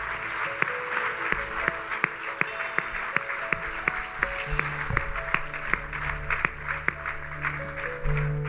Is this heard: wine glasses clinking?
no